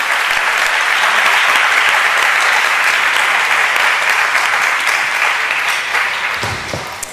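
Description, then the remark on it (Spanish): An audience claps before a talk begins, a steady, dense, sustained burst of applause that holds strong for several seconds before tapering off at the end, with no one speaking over it. “Eh, está bien lo de aplaudir antes de empezar, pero yo cuando estoy abajo empiezo a aplaudir cuando me canso ya de la charla para que para que se acabe.”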